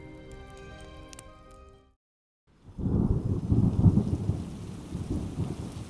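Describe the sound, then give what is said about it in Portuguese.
A brief melodic passage fades into a moment of silence, then heavy rain falling at night through a forest tree canopy sets in, dense and steady, with a deep rumbling undertone that continues to the end. “A noite se fazia presente e com ela um pouco de chuva se aproximou. Gotas atravessavam a copa das árvores, molhando as esmeraldas que estavam espalhadas por todos os lugares”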